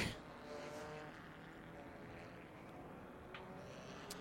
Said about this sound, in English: So cars out on track.